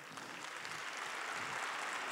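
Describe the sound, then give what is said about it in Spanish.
An audience applauds for Jesus during a sermon: steady crowd clapping that fills the whole moment as a dense, sustained patter, with no voices rising above it. “Dale un fuerte aplauso a Jesús.”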